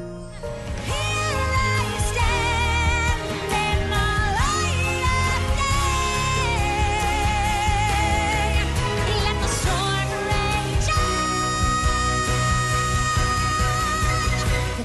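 A pop ballad from an animated musical plays loud and close, with a sustained, soaring lead vocal in English over a full orchestral band that swells and continues throughout.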